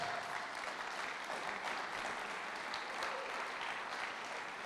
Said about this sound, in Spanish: Pueden dar un aplauso a Dios.